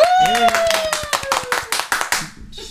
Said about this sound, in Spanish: Un aplauso al zapilote.